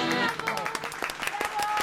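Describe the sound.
Scattered hand claps of applause, irregular sharp bursts through the whole stretch, with voices sounding over them at a steady, moderate loudness.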